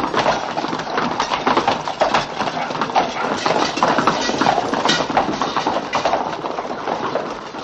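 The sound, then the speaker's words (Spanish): Horses' hooves clip-clop in a steady, overlapping clatter as mounted soldiers ride out of the barracks courtyard into the street, many hoofbeats blending into a busy, continuous rhythm at a fairly even loudness throughout. “Los soldados montan y salen a la calle.”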